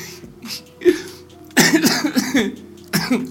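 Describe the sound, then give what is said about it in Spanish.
A person coughs in loud bursts: a couple of lighter coughs first, then a harsh fit of rapid hacking, and one final cough after a short pause. “Ahí va saliendo esa tos.”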